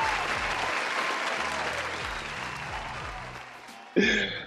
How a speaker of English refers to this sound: Let's give a round of applause for ourselves, Black excellence, and our communities for paving the way.